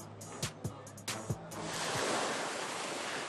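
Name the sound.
sea waves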